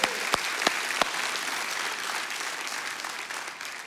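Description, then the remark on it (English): An audience applauds warmly for Pastor Ken, steady clapping from many hands at a fairly even level, with a few sharper claps standing out near the start before it gradually thins. “Let's hear it for Pastor Ken today as well.”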